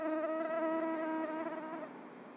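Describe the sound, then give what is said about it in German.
An Asian tiger mosquito, a relatively small mosquito with striking black, silver and white stripes, gives a thin, high whine that hums steadily for about two seconds, its pitch wavering slightly before it fades out, with no other sounds around it. “Und, wie Biologieprofessorin Annemarie Waldvogel ergänzt, eine auffällig schwarz-silber-weiß gestreifte, relativ kleine Stechmücke, die Asiatische Tigermücke”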